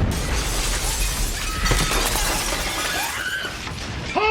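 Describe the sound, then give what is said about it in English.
A loud explosion in a movie scene, depicting a real-life blast that killed two people from the Osage community, with a deep rumbling roar, crackling debris and shattering glass spilling through the blast for several seconds; no one speaks. “And in the movie, two people uh, adjacent to that hear the explosion, and here's a little bit of the conversation.”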